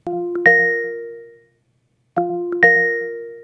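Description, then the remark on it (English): A bright two-note electronic notification chime rings out, fades, and repeats once more after a short silence. The tones are clear and ringing, with no voices. “So, have you ever heard something like this on your Amazon Echo?”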